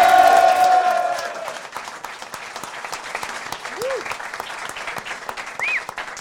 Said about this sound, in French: un énorme tonnerre d'applaudissements.